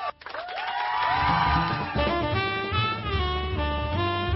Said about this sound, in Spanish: Enloquecieron los aplaudidores. Sí, los aplaudidores están desatados.